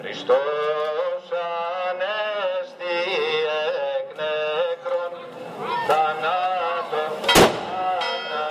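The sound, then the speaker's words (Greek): On the night of Holy Saturday on the Greek island of Paros, a firecracker goes off with one sharp, loud bang near the end, after a fainter pop a moment earlier, while voices sing a sustained chant throughout. “ολόκληρο το νησί το βράδυ του Μεγάλου Σαββάτου με το πανηγυρικό του χαμόγελο φωτίζεται από άκρη σε άκρη με τα υπερβολικά βεκαλικά και πυροτεχνήματα που πέφτουν όλο το βράδυ.”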